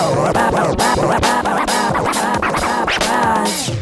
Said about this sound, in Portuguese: com scratch do DJ